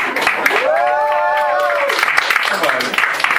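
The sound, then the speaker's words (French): An audience at the third edition of the Motel Comedy Club applauds steadily for the whole moment, a dense, even wash of clapping, while a voice talks over it partway through. “Tous ces applaudissements merci, vous êtes fantastiques.”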